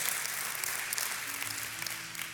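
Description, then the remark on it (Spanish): A crowd in San José, Costa Rica applauds steadily as a greeting to viewers watching from other countries, with many hands clapping into a dense, continuous hiss that holds an even loudness throughout, and no one speaks over it. “Así que si les damos un aplauso que nos ven de muchos otros países, les mandamos un abrazo, un aplauso para que estén conectados con nosotros.”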